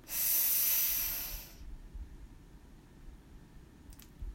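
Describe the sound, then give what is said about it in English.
A single deep, forceful breath drawn in while tensing the whole body from the feet up to the face, a loud airy hiss lasting about a second and a half, followed by quiet with only a faint low rumble. “So, breathe in and tense everything up.”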